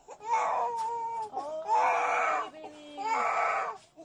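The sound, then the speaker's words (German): A toddler who has been scalded with hot coffee cries loudly in three long, wailing bursts separated by short gasping breaths, distressed, with no other sounds around it. “Ein Kleinkind wurde mit heißem Kaffee verbrüht.”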